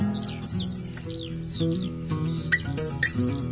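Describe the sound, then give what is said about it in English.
A bird cries in the sky with a series of quick, high, downward-sweeping chirps, repeated every half second or so over a steady low droning backdrop, clear and moderately loud. “In the sky, a bird was heard to cry.”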